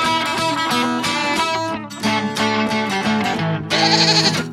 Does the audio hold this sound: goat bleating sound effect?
yes